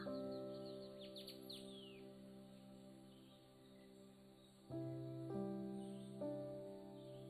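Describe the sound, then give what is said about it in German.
Birds chirp and twitter in quick bursts, busiest early on, in the early morning amid greenery on the island of Bali, over a steady, soft musical drone of sustained tones that shifts pitch near the end. “Um dich herum die Geräusche, die Vögel.”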